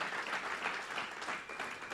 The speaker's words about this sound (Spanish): Dale un aplauso fuerte a Cristo porque Él se lo merece.